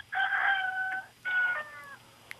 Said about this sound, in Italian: È stato annunciato da un canto del gallo, quindi eh, adesso la possiamo sentire. la sentiamo benissimo. Abbiamo Perfetto, sentito anche il gallo.